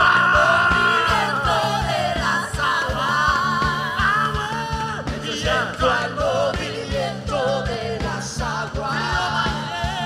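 An audience shouting and yelling loudly together, a dense, sustained roar of many voices over a steady, driving drumbeat and music that continues throughout.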